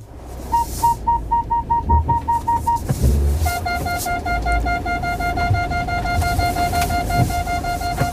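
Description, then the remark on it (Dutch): Car parking-assist warning beeps: a steady series of short mid-pitched tones that pauses, then resumes as a faster, lower continuous beeping over a low engine rumble. “Ja, maar jongens, dit is parking assistant.”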